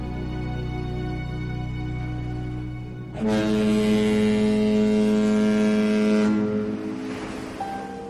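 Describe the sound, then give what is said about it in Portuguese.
A low, steady droning of a boat's engine as the boat moves away, with a loud, sustained horn-like blast for about three seconds in the middle before the sound eases off. No one speaks. “desculpa que cada família deu para vocês estarem ali não é mais tão relevante à medida que o barco se afasta.”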